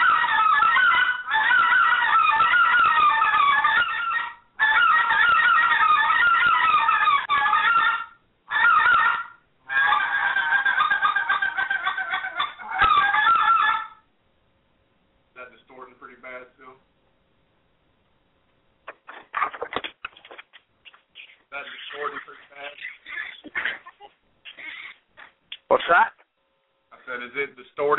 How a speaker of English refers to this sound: Uh, this is the big gut call. The big gut. Big gut call first. Just so you can hear the difference. I, it'll probably distort again because I'm in pretty close quarters here, so.